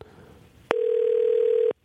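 A single steady ringback tone from an outgoing phone call, placed without calling ahead, sounds for about a second, loud, after a faint background murmur, then cuts off abruptly.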